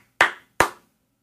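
Two sharp, bright hand claps in quick succession, each snapping loudly and then ringing off briefly, with silence between and after them and no voices.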